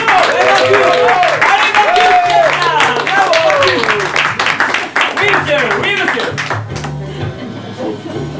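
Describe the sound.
Steady audience applause thanking a collaborator who runs the Courbouillon Musique shop, dense rapid clapping that continues for several seconds, mixed with overlapping voices and cheers, then thins out toward the end.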